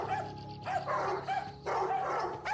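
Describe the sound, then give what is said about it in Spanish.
Dogs bark as a warning from inside some houses in several quick bursts, with yelping, overlapping calls that sound somewhat muffled, with no one speaking. “La tienda más cercana está a 10 minutos andando, y el único sonido que se oye es el de los perros que ladran desde el interior de algunas viviendas a modo de advertencia.”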